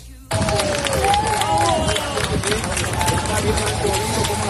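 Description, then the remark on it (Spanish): A crowd of neighbours breaks into sustained applause as firefighters rescue a father and his daughter from a terrace of a burning apartment block, after a short silent lead-in, with dense steady clapping mixed with cheering and raised voices, and a few shouts rising over the din. “El aplauso de los vecinos cuando los bomberos han rescatado a un padre y a su hija de una terraza del bloque.”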